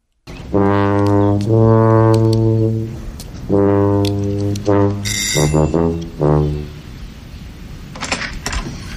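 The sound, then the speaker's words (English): A woman plays a tuba behind her door, a short, loud phrase of deep, sustained notes with a brief pause in the middle, echoing the shave-and-a-haircut rhythm, followed by a few faint clicks near the end. “the one I can think of is when he goes to pick her up, and he can hear this tuba playing, and as he gets to her door and knocks, she's doing the shaving a haircut two bits.”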